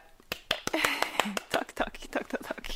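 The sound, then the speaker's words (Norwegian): A brief burst of hand clapping, about a dozen sharp, uneven claps at moderate volume, with people talking and murmuring over the applause throughout, acknowledging the work behind about 70 hours of video content. “liten applaus, fordi eh, jeg vet hvor mye jobb det er.”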